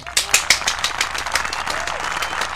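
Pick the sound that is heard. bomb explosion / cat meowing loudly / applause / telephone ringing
applause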